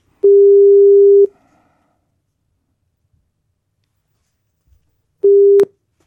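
A steady electronic telephone tone sounds for about a second as a phone call is placed, then after a silent pause a second, shorter tone of the same pitch follows, ending with a faint click.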